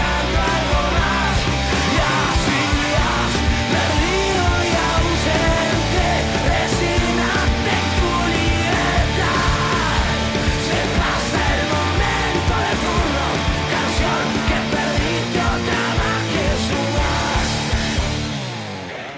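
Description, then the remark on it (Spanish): A full-band song plays as background music, continuously at steady, loud volume, with drums, bass and bright instrumentation filling the mix throughout, then cutting off abruptly at the end. “¿Viste cuando llegás tarde al recital, abrís el telón, entras con el vaso de birra en la mano izquierda y empezás a cabecear así, pum, los sombritos, eh, eh, y suena esta, música de fondo.”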